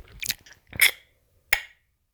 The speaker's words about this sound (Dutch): Sorry, jezus, dat heb ik heel vaak. doe ik gewoon, mijn ik aan het kauwen en dan doe ik mijn tong verkeerd of zo. En dan komt er serieus sowieso straaltje uit mijn mond.